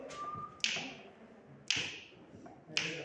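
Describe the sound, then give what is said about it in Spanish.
Three crisp finger snaps ring out at an even, steady pace, each sharp and fairly loud against a quiet murmur, made by students practising their part of a musical piece. “Ah, como suenan los pitos.”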